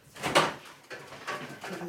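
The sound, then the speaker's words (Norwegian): Doves cooing softly in a cage in the basement of a famous university, B.F. Skinner's doves in the 1960s: a low, throaty murmur, a few overlapping coos following a brief burst of rustling or wing flutter at the start, with no voices. “Der han sitter og kikker inn i buret på duene sine i kjelleren på en av verdens mest berømte universiteter en gang på 1960-tallet.”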